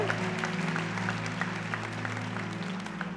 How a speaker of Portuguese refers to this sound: Dê um brado de vitória ao Senhor e aplaude e adore.